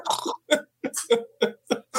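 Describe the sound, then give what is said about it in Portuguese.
A voice imitates a pig, making a quick series of about seven short, rough grunts and snorts in an uneven rhythm, with brief silent gaps between them. “Ele dá uma roncadinha diferente.”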